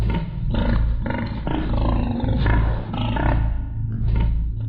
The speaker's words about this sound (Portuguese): Algo. roncando? Então, a sala se preencheu com o barulho ensurdecedor de um guincho de porco.